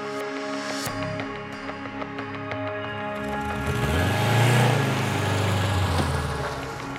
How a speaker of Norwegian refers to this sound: Og litt over klokka åtte kjører de seks pansra bilene ut av leiren. De kjører inn til Almar for å plukke opp en syvende bil med distriktsguvernøren i Faryab-provinsen.